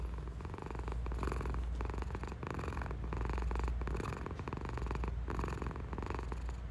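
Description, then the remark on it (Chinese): A pet house cat purrs steadily and continuously, a low rumbling drone with a soft rhythmic pulse of in and out breaths, fairly quiet and alone with no talking. “因为它时不时的会奉献出它的呼噜噜的声音，让我们大家来听一下。”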